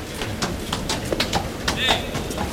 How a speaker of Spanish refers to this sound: Cuando pasa el caballo de picar, en un momentito pasa doblado por aquí, por el callejón, delante del puesto de comentaristas de Radio Andalucía Información, aquí en Toriles. Ahí viene el caballo.